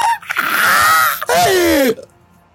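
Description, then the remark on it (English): A human voice imitates a burning monster's terrified scream in two loud, strained bursts, the second sliding downward in pitch before trailing off into near silence. “and it screams out in a more of a terrified way than before”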